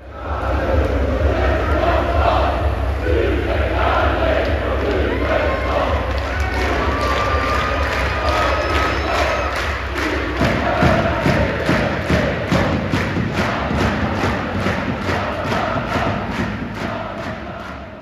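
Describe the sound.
A dense crowd of football supporters chants loudly, with rhythmic clapping or thumping joining about halfway through and driving a steady, repeated beat under the massed voices.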